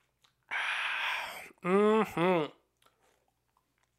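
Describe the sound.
A second-long slurping sip of beer, followed by a short, voiced, satisfied exhale in two quick bursts, then quiet.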